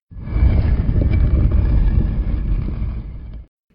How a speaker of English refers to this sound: There's your audio cue for Robert Toombs. You know, the sound of a tomb door opening.